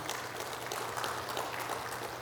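Steady applause from an audience for a young man standing among them, a dense wash of many hands clapping at an even level throughout, with no voices standing out.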